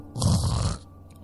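One rough, rattling snore lasting under a second, with a deep throaty rumble and breathy hiss, heard up close and alone before it fades into quiet.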